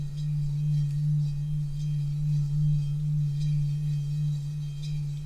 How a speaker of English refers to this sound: Not as much, but you can you can ring it. You can hear a little bit of the wah wah wah. Yeah, mm-hmm. that's oh, take, yeah. taking the striker around around the bowl. So the different strikers make a different sound